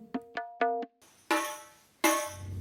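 Two loud, resonant gendang drum strikes ring out, each decaying slowly, following a quick run of four lighter pitched percussion notes, played in a music shop. No one speaks.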